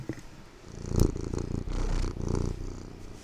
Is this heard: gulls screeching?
no